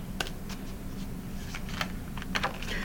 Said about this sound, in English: Last flip, we are shuffling our tarot decks. Each in turn shuffling our tarot decks.